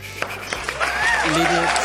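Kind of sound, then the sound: crowd, applause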